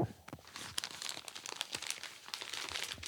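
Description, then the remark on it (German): Continuous crinkling and rustling of a package being unwrapped, with crisp irregular crackles and sharper snaps of plastic or paper throughout, fairly quiet and with no talking. “Ich habe dir jetzt ähm, das Backerl mitgebracht, von dem ich berichtet habe.”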